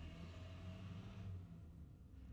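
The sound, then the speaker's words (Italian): A truck rumbles past outside, a steady low engine drone with a broad hiss that swells and then fades off after a second or so, with no voices. “Questo era un camion, facciamo anche ASMR adesso.”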